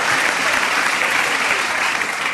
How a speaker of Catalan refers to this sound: S'ha apreciat perfectament per la ràdio, que és l'aplaudiment de menys intensitat des de les 7, eh?